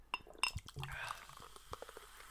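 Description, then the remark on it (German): A drink is poured into a glass: a couple of light glassy clinks, then a short splashing pour with a rising tone, followed by a few soft taps. “Jetzt muss ich mal schauen, ob man das hört, wenn ich mir das hier einschenke.”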